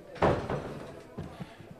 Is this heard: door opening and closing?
yes